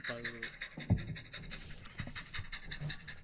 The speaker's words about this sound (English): What the fuck was that sound effect for? dog pants. Oh, I thought it was like an engine running or a choo-choo train.